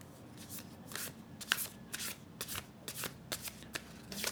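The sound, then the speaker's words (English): A deck of self-care cards being shuffled by hand, a steady run of quick papery riffles and slaps, fairly soft with no talking. “So I'm going to shuffle the cards and then I will share my thoughts.”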